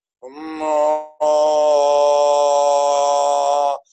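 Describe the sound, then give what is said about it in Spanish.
A voice holds a resonant, open toning sound from the lower belly, first a short breath of tone, then a long steady sustained note of a few seconds, rich in overtones with no words. “que salga de su bajo vientre el sonido, la vitalidad del sonido.”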